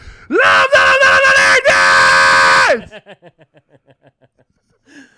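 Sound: man screaming loudly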